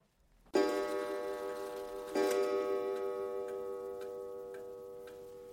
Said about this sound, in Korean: 오래된 벽시계가 두 번 종을 쳤다.